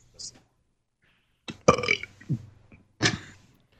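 A loud, close-up burp, long and croaking, followed a moment later by a second shorter belch, with quiet pauses around them.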